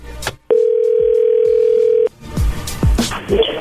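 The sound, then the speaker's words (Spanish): A steady telephone tone of an incoming call sounds once for about a second and a half, a flat mid-pitched hum that cuts off abruptly, followed by soft clicks and handling noise. “Oye, entró ahí, contéstale tú.”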